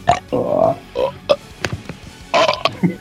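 loud burp

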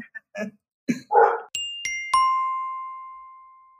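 dogs barking

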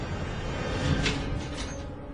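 apartment door opening

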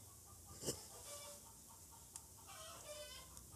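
chickens clucking

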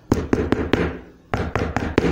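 knocking on a door

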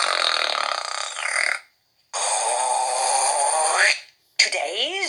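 snoring

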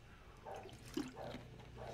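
speaker drinking water

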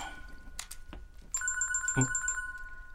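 mobile phone ringtone ringing

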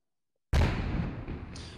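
cannon fire sound effect

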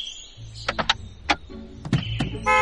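car horn honking

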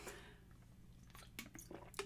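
sipping water

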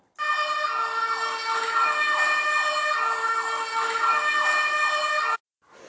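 fire truck siren

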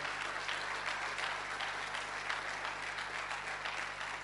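applause

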